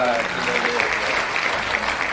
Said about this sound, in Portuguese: Ei, uma salva de palmas.